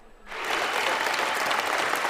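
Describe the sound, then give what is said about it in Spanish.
A crowd bursts into sustained applause and exclamations after a brief quiet start as Nancy Pelosi, the first woman to preside over the House of Representatives, announces she will step down as leader of the Democrats; steady dense clapping fills the space with a rush of noise, cheering blended into the clapping. “Entre aplausos y exclamaciones, la primera mujer en presidir la Cámara de Representantes, Nancy Pelosi, anunció que dejará de ser la líder de los demócratas el próximo año.”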